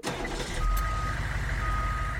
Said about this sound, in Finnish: rekka perutti tuomaan lisää viinaa Just. pihaan, niin kyllä se sitten saatiin siitä järjestymään.